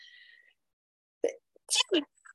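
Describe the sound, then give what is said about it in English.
After a brief quiet moment, a person lets out a sneeze: a sharp catch of breath followed by two quick, forceful, breathy bursts, fairly loud. “I'm really trying not to sneeze.”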